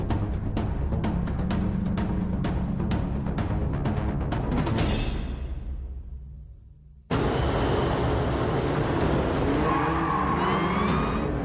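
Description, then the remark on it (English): Loud racing car engines in the Gran Turismo driving game roar with rapid revving pulses and a gear shift, fade out briefly, then burst back in with high whining tire squeals over the engine noise. “I'm seeing cars now. Now a gear shift.”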